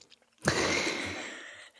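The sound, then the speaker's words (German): Someone bites into an After Eight mint chocolate thin: a sharp snap, then about a second of crisp, steady chewing noise that fades out. No one speaks. “Reinbeißen, knack.”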